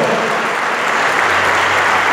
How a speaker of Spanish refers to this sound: Déselo al Señor esta noche ese aplauso.